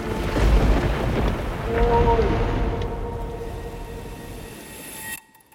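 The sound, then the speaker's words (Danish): Deep, rolling thunder rumbles loudly over a steady stormy roar during a lightning storm at sea in the southernmost Solomon Islands, on a voyage from Vanuatu to Papua New Guinea, swelling twice before slowly easing off and then cutting off abruptly. “Og det lyner over torden og bare helt vildt.”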